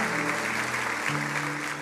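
An audience claps steadily for a couple of seconds, a dense, even wash of many hands. Low sustained keyboard tones hold underneath, shifting pitch once midway.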